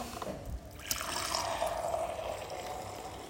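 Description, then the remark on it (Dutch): A short clink, then water pours steadily into a glass, a continuous splashing stream lasting a few seconds with no one speaking. “Ehm, even water pakken ondertussen.”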